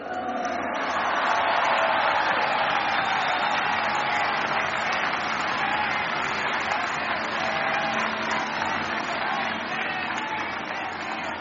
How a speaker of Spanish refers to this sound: Otro aplauso.